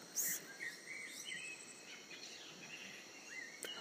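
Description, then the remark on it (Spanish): Faint, scattered bird chirps and short calls in a quiet pine forest, over a steady high insect drone, all soft with no one speaking. “Oye los pájaros, observa las mariposas, las libélulas.”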